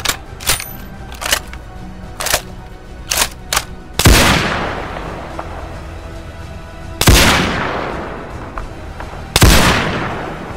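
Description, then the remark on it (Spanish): A quick burst of sharp gunshots cracks in rapid succession, followed by three loud, heavy shots spaced a few seconds apart, each trailing off in a long echoing decay; shots fired from high up on a building at a magazine publisher and his lawyer. “La descarga de munición fue insuficiente y ni Flint ni el abogado que lo acompañaba en ese momento murieron como consecuencia de los disparos”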